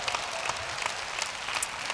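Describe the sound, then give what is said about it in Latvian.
Steady applause from an audience for a gentleman, a dense wash of many hands clapping at an even level for the full two seconds, with no voices standing out. “Nu, dosim aplausu tam kungam.”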